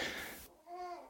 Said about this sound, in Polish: Dodam, żeby słuchacze wiedzieli, że tutaj e, te odgłosy, które słyszycie w tle, no to towarzyszy nam młody człowieczek bardzo, który na, sobie gaworzy w tle, tak. I urozmaica nam tutaj rozmowę i Państwu też przy okazji.